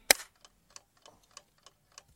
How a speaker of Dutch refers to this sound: Ik stel de klok in op drie kwartier. U kent het, eh, u kent het recept, zo lang hebben we voor de podcast. En daar gaat hij.